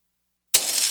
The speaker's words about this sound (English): Hear that? That's the sound of a house being trashed while a gang of thieves ransack the place and what they don't steal will be destroyed.